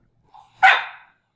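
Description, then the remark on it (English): A single sharp bark from Abby, a cattle dog, rings out loud, preceded by a brief soft whine-like note, with silence around it. “and Abby, my cattle dog and hypercritical co host.”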